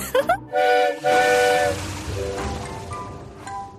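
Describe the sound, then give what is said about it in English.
A loud steam engine whistle sounds in two strong blasts with a rising start, then fades into a steady hiss of escaping steam and low rumbling. “I don't think she likes steam engines very much.”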